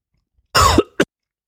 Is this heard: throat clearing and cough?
yes